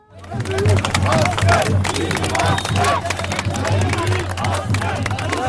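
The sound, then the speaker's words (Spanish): A large crowd sending off military conscripts shouts in rhythmic unison a chant meaning 'the best soldier is our soldier', voices overlapping in a loud, continuous chant with scattered claps and cheers, sustained throughout over a low steady hum. “Así, con estos gritos que significan el mejor soldado es nuestro soldado, en ruidosas caravanas de coches o acompañados del sonido de tambores, son despedidos los quintos cuando cada año se les llama filas a rendir cuenta con el servicio militar”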